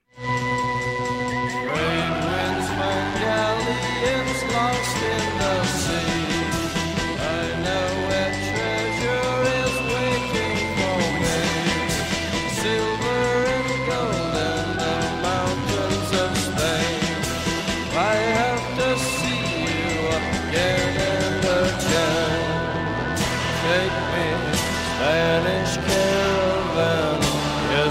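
A moody rock song plays steadily and loudly from start to finish, with layered guitar and sustained melodic lines and no talking over it.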